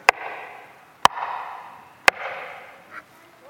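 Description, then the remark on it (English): Three slow, evenly spaced knocks on a door, each sharp and loud with a roomy echo trailing off between them. No one speaks. “It's the knock at the door.”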